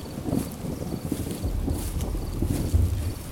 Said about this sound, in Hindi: राहुल जंगल में कुछ ही दूर चला था कि अचानक वहाँ तेज़ तेज़ आंधियां चलने लगी और बारिश शुरू हो गई